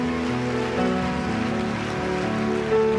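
An audience at a church service applauds Jesus in a dense, continuous wash of clapping lasting about three seconds, with steady sustained musical tones held underneath and no voices standing out.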